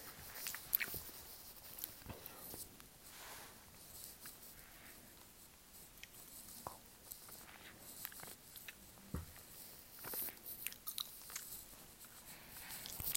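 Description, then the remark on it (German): Biting and chewing of a sweet gummy snake, bitten off piece by piece before the whole thing goes into the mouth: soft, sticky mouth sounds with occasional sharper bites, repeating irregularly at low volume with no talking. “Abgebissen ein bisschen. ich beiß noch einmal ab und dann nehme ich einfach, einfach das ganze Ding in den Mund.”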